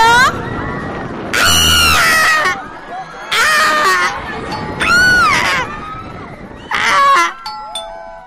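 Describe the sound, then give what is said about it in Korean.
Riders on a swinging pirate ship ride scream in loud, high-pitched bursts that recur every second or two, rising and fading with each swing over a steady rush of wind and crowd noise. “바이킹 타니까 재밌네요, 여러분.”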